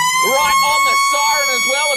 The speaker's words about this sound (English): Right on the siren as well, if you don't mind.